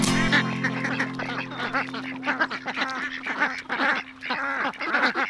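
A flock of egg-laying poultry calls nonstop, overlapping quacks and honking chatter layered over one another with a steady low hum underneath, loud and busy throughout with no talking.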